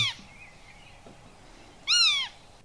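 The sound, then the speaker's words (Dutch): A black-tailed godwit alarm call: one loud, harsh, nasal call with a slightly arched, down-slurred pitch rings out after a quiet stretch, following a faint, brief call at the very start. “Dat is allemaal alarm call.”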